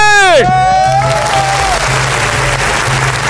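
A crowd claps steadily and loudly for a few seconds, the dense patter sustained throughout, following a brief descending tonal flourish at the very start.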